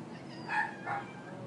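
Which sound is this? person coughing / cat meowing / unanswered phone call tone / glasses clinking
cat meowing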